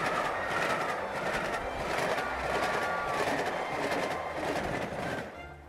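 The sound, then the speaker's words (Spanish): A train rolls steadily along the rails with a loud, continuous rumble and a faint rhythmic clatter of wheels, easing off slightly in the last moment. No one speaks. “la cual la novia llegó en tren procedente de Aranjuez, concretamente en un vagón forrado de raso blanco.”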